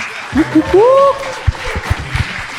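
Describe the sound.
Scattered audience applause at a Graubünden stand-up comedy show, with a rising whoop or cheer early on, followed by a few uneven, sparse claps over low murmuring voices.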